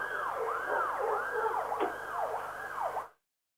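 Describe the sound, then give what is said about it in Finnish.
A fire engine siren wails continuously in rapid rising and falling sweeps, loud, with a low engine rumble beneath, as the first fire engine arrives at the scene in Mikkeli, Finland, before the siren cuts off abruptly. “ensimmäinen paloauto saapui nyt tällä hetkellä paikalle.”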